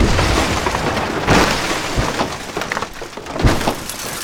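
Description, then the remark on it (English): A heavy, crumpled steel service-elevator door, torn off and tossed aside, crashes down onto concrete with a loud thud followed by rough scraping and clattering bursts of debris over several seconds, with no voices. “It lands with a sound kind of like the massive thud of a crumpled steel elevator door being carelessly tossed onto concrete.”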